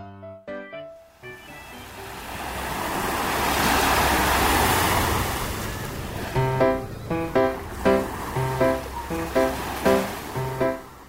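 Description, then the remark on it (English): A single ocean wave breaks on a beach in Kanagawa, Japan, rolling in with a rising, hissing rush and washing back out, framed by a short melody of bright, plucked notes before and after. “Living by the sea. It's my daily routine to come to the beach.”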